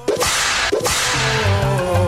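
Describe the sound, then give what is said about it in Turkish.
Two sharp, loud whip cracks snap about half a second apart, each followed by a hissy tail, with a steady music bed continuing underneath. “Abi kamçı ne güzel şaklıyor yazmış efendim.”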